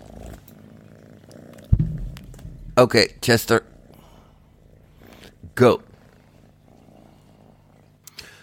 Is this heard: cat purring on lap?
yes